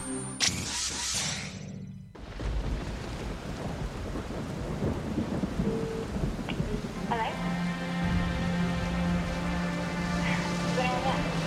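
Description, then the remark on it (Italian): A thunderstorm: a sharp crack of thunder opens, then steady rain hisses with low rumbling, while sustained musical tones rise in partway through. “Proprio come un temporale che irrompe nella calura estiva di questi giorni.”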